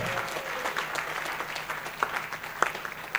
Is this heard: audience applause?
yes